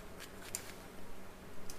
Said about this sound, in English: are you eating? Yeah. Yakult, frozen Yakult